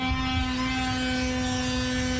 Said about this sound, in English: That is the sound of chainsaws and power tools here in the community of Deer Park, Texas. I'm standing in a strip center with a Little Caesars Pizza, UPS store, a kolache store. All of them have the windows broken, debris all over the parking lot.